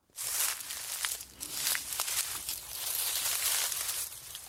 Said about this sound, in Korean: 네, 정답은 2번 낙엽 밟는 소리였습니다. 살짝 뭔가 진짜 튀김 먹는 소리 같기도 해요. 약간 그 새우튀김이나 깻잎튀김 같은 거.